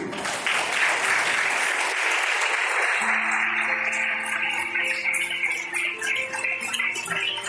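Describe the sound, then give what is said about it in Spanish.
An audience claps for all the mothers present in sustained, dense applause that starts loud and thins out, with a voice beginning to speak over the fading claps in the second half. “Y qué bueno un aplauso para todas las mamás que están aquí.”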